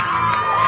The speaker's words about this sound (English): A lot of focus on championship basketball, and they've got a lot to celebrate in Lake Country here this morning. The sound of celebration in Green Bay. That's the Kettle Moraine Lady Lasers hoisted the giant gold ball